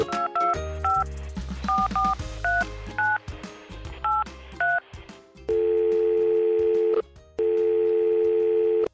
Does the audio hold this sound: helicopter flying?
no